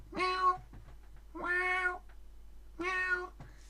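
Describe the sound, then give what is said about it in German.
A human voice imitates a cat's meow three times, each drawn-out call separated by short pauses, fairly soft, with no other sounds around it. “die Katze macht Miau, absolut richtig.”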